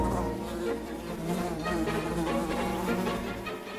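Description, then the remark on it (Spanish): A steady buzz of common houseflies around a rotting vegetable garden drones on for a few seconds, continuous, with a dense, slightly wavering hum and no talking. “Y diciendo esto, el poeta marchó con mejor humor de aquel huerto podrido, dulce puchero de abundancia para aquellas familiares inevitables golosas, moscas vulgares que le evocaban todas las cosas.”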